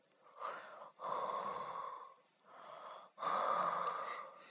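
Soft, breathy snoring, apparently performed by a human voice, depicting a little lamb snoring softly in an old wolf's ear: two slow cycles, each a short, quieter intake followed by a longer, fuller airy breath. No talking accompanies it.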